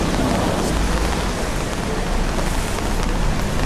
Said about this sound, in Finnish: Taustapeli ruokapöytä on siis Malagassa ja vettä, vettä sataa. Koko, koko keväänä ei ole varmaan monta päivää satanut vettä, mutta nyt on yksi päivä niistä.